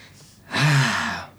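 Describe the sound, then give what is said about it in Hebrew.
A single strong, heavy breath, drawn in sharply and then released with a breathy rush, loud against a quiet background. “מה זה הנשימה החזקה אוקיי, הזאת?”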